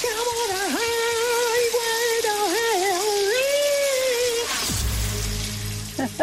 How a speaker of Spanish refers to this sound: ¿quién crees que canta bajo la ducha? Pero antes de que lo hagas, yo te lo voy a poner otra vez para refrescarte la memoria.